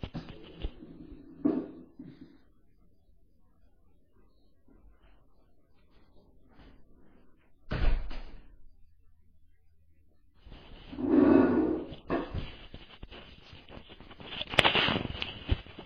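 A door that the wind had blown open is swung shut with a single sharp, heavy thud partway through, surrounded by quieter rustling, knocks and handling noises, with a burst of scraping movement afterward.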